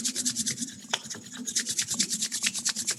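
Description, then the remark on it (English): Palms rub together as fast as possible to make them hot, in a steady back-and-forth, making a dry, raspy swishing repeated about five times a second, fairly loud and with no voices over it. “Now put them together and rub them a lot”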